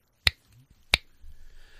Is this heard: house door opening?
no